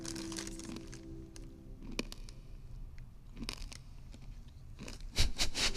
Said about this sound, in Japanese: ナーズのグミこれなかなか面白いですよ音をもう一回かしてくださいすごくいい音するはずなんですけど ASMR 系なんですよね、はい、聞いてくださいね